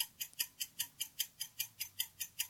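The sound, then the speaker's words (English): A timer clock ticks in a steady, quick rhythm, about a dozen crisp, bright clicks evenly spaced over a couple of seconds. Fairly quiet, with no voices. “Once again, put the clock on.”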